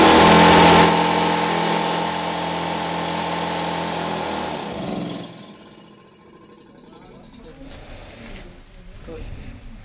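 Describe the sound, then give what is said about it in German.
A drilling machine runs loudly at idle with a steady motor whine for about five seconds, then cuts off, leaving faint rustling and low background sounds. “Ja, das war der Leerlauf. Ne? Wenn die bohrt, ist sie dann etwa so lausend mal 30 davon hier stehen haben.”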